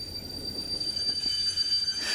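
A high, thin metallic squeal of train wheels grinding on rails holds steadily over a low rumble of a moving railcar, continuous, with no voices.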